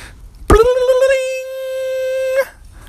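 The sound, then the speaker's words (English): A single bright chime is struck and rings out with a steady, sustained tone for about two seconds before stopping abruptly, heard alone and fairly loud with no talking, as a cue to turn the page in a read-along book. “You'll know it is time to turn the page when you hear the chimes ring like this.”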